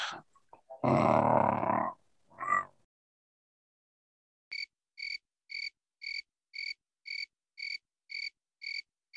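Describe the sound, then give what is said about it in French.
A person imitates a cat's purr with a rough, rolling throaty rumble lasting about a second, then a shorter grunt, followed after a pause by a steady series of high, evenly spaced chirping pulses. “Attends, je vais essayer de l'imiter.”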